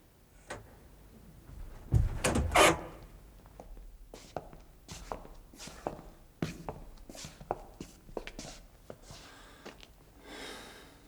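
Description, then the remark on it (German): Footsteps move about, followed by a loud thump around two seconds in as a door is shut again, then more scattered steps and light knocks fading into quiet shuffling. “Ich werde die Tür wieder schließen.”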